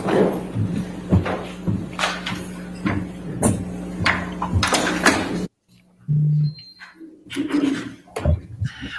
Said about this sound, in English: I have a kitten in my closet. If you hear a crash, that's what's happening. He's climbing the closet.